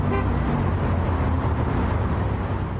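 A vehicle horn blares amid loud, dense traffic noise heard during a bus tour, with engine rumble and honking filling the whole stretch.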